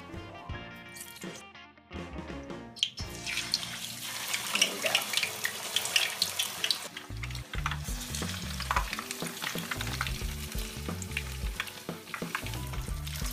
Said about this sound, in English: After we're done frying the fish, we're gonna take the fish out and put it on those paper towels.